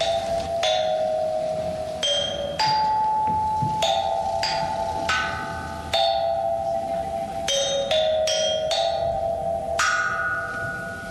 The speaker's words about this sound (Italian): Sono i suoni della pietra, non sono i miei suoni, tant'è che io opero solo accarezzando la materia e vengono fuori i suoni che sono lì dentro.